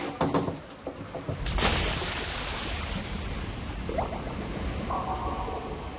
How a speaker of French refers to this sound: ça c'est un bruit de piscine qu'on a emprunté à euh, un documentaire sur le peintre Hockney